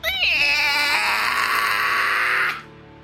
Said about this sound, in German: Dem Boden breitet sich so eine, eine Blutlache aus und du hörst auch aus dieser Wunde des Stockes entweicht ein höllischer, unmenschlicher Schrei. Äh, unglaublich laut.